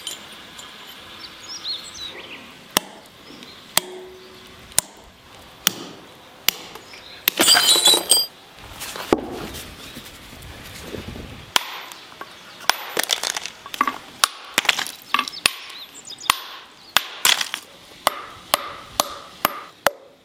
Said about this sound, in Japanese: 今朝は灯籠作りのいい音それではお聞きください。